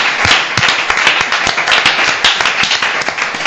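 Audience applause: a dense, steady wash of many hands clapping at once, bright and loud throughout, with individual sharp claps poking through the continuous crackle.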